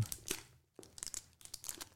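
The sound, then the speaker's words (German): Well-wrapped plastic packaging holding a food item crinkles and crackles in quick, irregular bursts as it is pulled open, with sharp, bright rustles separated by brief pauses. No one speaks. “du, da ist was drin, also da ist ein Lebensmittel drin. Ja. Okay? Mhm. Das knistert.”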